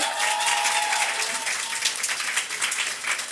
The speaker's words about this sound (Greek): Δώστε ένα χειροκρότημα.